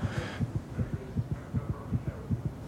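A fast, steady heartbeat thumps muffled, its low double beats repeating evenly over a soft background hum, with no voices.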